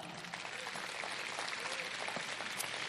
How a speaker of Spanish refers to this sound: Dele un aplauso.